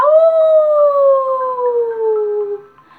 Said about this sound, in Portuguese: Como é a sua voz? O lobo uivou. Au! Au! Au!